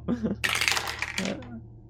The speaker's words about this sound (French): je te rappelle que euh, je suis, balèze au jet de dés.